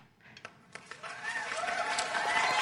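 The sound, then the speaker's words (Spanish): A few scattered claps quickly swell into loud, dense applause from a crowd, growing fuller and steadier toward the end, with faint voices mixed in. “Me sorprendieron esos aplausos, eso sí, me cogieron ahí, desprevenido.”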